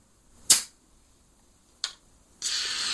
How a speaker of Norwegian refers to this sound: Ja, når du snur en flaske med bobler på huet og rister den, og så åpner korken etterpå, så har den tendens til å få sånn fontene, da.